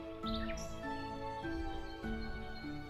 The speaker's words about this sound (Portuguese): Daí, obviamente que o bicho, que é, é uma um araponga, né? É, é, um, é um barulho, é um né? Como se fosse uma martelada, não é uma coisa... Podemos até botar o som do bicho ali.